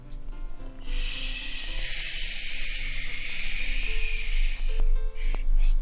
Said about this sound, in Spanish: ¿Qué es eso? Una ráfaga de viento azotó la cabina. Trae consigo ramitas, hojas y mucho, pero mucho aire.